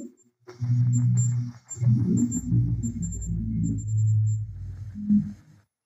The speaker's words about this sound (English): So you hear the REM pod go off and a car drive by. That REM pod was right next to the handprint and nobody was standing next to it.